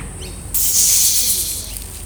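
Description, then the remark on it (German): A voice imitates a snake with a sustained, bright hiss that starts abruptly, swells, then tapers off over about a second and a half, with a low steady rumble underneath. “Ich zischle und ich kann laufen ohne Füße.”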